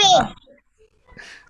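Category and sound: human body sound, sneeze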